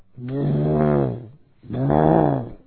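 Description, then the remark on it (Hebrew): Someone imitates with their voice the cooing a dove makes at night while sitting on its chicks or eggs: two long, low, humming coos, each a bit over a second, separated by a brief pause, fairly loud. “שמעתם את הרעש של היונה פעם בלילה?”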